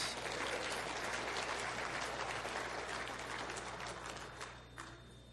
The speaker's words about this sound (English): they weren't clapping for you coming in. So sorry.